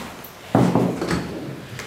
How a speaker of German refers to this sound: Um 7.30 Uhr ist er bei der Morgenvisite. Er öffnet die Tür zu einem schlichten Patientenzimmer. Einzelbett, Tisch, Stuhl und jede Menge Kabel.